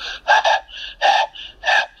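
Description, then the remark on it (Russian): A voice imitates wheezy, whistling panting like a dog after a run: about six quick, rhythmic breaths alternating stronger and softer, each airy puff carrying a thin whistle, with no talking. “Я говорил с, с присвистом,”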